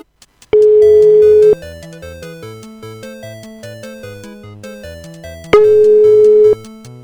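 A telephone ringing tone for an outgoing call to Ciudad Real sounds twice, each a steady one-second mid-pitched beep separated by a long pause, over quieter background music with no one talking.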